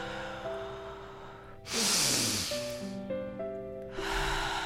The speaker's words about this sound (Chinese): 好，我们做最后一回合。当你准备好之后，请开始吸。用自己的速度，持续的专注在你的呼吸上